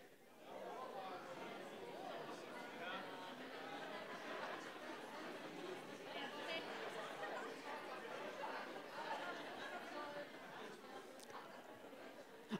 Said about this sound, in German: Wie geht's euch? Und die Antwort darf nicht gut heißen, sondern ein anderes Adjektiv. Dreh dich mal zu eurem Nachbar um und fragt den mal, wie geht's dir heute?